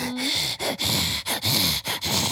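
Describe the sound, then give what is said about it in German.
A voice makes loud, heavy, rasping breaths in a steady cycle of about four inhale-exhale pulses, imitating a large creature breathing. “Und du hörst jetzt aber aus dem Norden ganz deutlich irgendwie was atmen.”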